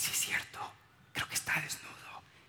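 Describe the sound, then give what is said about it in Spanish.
A single voice imitates a crowd whispering, with breathy, hissing murmurs coming in two short bursts separated by a brief pause, fairly quiet. “Y entonces toda la gente empieza a cuchichear, oye,”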